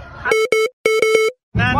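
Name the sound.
censorship beep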